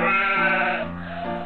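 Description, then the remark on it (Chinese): A single wavering bleat of a lamb, Beliou, as it carries a tray of freshly made mint ostrich ham. The bleat is held for over a second with a nasal, buzzy tone that dips slightly toward the end. Fairly loud, with no talking over it. “小绵羊贝利奥用托盘儿托着刚刚做好的薄荷鸵鸟火腿。”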